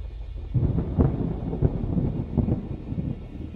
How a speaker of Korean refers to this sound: 갑자기 내려친 천둥 소리에 세지는 다시 잠이 깼고